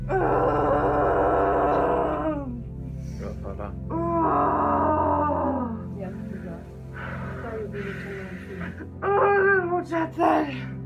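A woman lets out long, deep, strained moans and groans while pushing during labor in childbirth, several drawn-out vocal bursts separated by short breaths, loud and guttural, with no words spoken.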